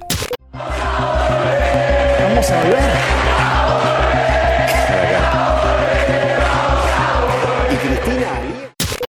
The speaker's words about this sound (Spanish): Y se escucha que la gente canta Vamos a volver, que ella media que los alienta. Este video circuló mucho en redes sociales y salió en el canal La Nación Más.